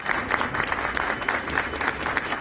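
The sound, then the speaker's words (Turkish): Steady applause from a crowd as a 68-year-old stage actor who fell ill during a performance is taken into an ambulance; many hands clapping continuously, sustained and fairly even in loudness throughout with no voices standing out. “68 yaşındaki Haluk Bilginer alkışlar eşliğinde ambulansa alındı”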